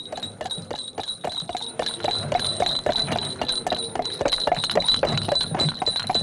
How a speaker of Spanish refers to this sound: ¿De dónde vendrá ese gran carruaje? Es el coche de Alcalá. Esta noche viene lleno de gentes.